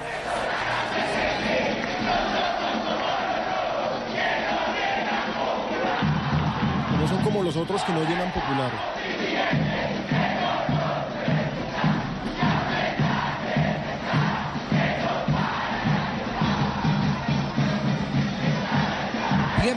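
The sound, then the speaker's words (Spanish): A huge stadium crowd of Atlético Nacional football fans chants in unison, a loud, continuous wall of massed singing voices with a rougher, roaring swell partway through. “A ver, ¿qué más, ¿qué más podemos escuchar ahí de lo que cantan los hinchas de Nacional?”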